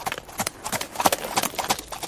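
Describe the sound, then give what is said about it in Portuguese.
Horse hooves clip-clop in a quick, steady rhythm, a string of sharp knocks on a hard surface as the horse passes by. “Ih, rapaz, olha o cavalo passando aí.”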